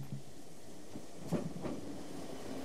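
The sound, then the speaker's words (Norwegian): A moving train rumbles steadily along its track, with two distinct clacks of wheels over rail joints in quick succession. No voices, just the continuous low clatter. “toget ikke virkelig eksisterer, ble filmen fortsatt filmet inne i et tog som var i bevegelse.”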